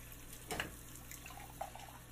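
A kitchen faucet is turned on with a brief gush to wash dirty dishes in the sink, then water runs quietly and steadily into the sink with soft, faint splashing over low background hum.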